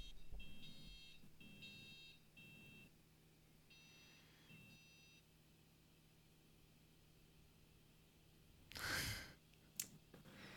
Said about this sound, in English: Seems like a uh, beeping going on. Fire alarm. Hopefully, smokes. Actually, sounds not. a little less shrill than a fire alarm.